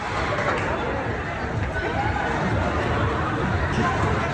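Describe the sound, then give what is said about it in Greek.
A panicked crowd flees a supermarket in Los Angeles, California, after gunshots inside, with many overlapping voices and a steady wash of shuffling, hurried noise holding at a constant, fairly loud level throughout, no single voice standing out. “Ο κόσμος τρέχει έντρομος να σωθεί.”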